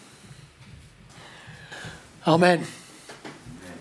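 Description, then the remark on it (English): A single short, sharp sneeze bursts out loudly about two-thirds of the way through, standing clearly above the quiet room tone and a brief spoken word. “Bless you.”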